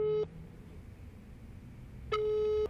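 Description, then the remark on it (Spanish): A telephone ringback tone heard while calling: a steady electronic beep cuts off, then after a pause of nearly two seconds another half-second tone sounds. No voices, just the line ringing. “Primero vamos a ver si me atiende el teléfono.”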